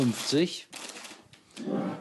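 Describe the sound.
A small potato chip bag bought at the hotel crinkles in a hotel room in Mainz in several bright, crackly bursts, preceded by a brief voiced sound, with a final louder rustle at the end.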